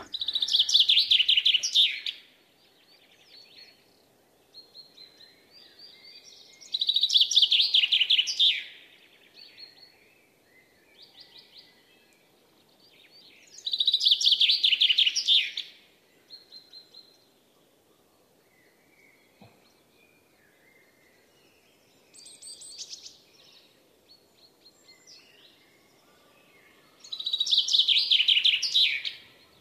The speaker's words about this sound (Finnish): Me kuunnellaan vielä ennen merisäätä tätä Peipon tärisevää suoritusta.